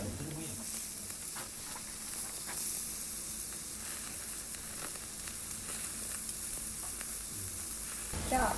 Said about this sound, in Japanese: 焼肉と音って関係ないんですけうん実はそのタレが蒸発する音でお肉を焼くタイミングを決めたりするんです